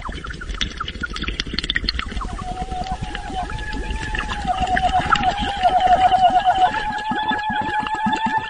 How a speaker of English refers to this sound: This clip is from the 2009 opera "You Who Will Emerge from the Flood." The voice that you're hearing in this is actually the underwater, mouth to water singing that we were discussing earlier.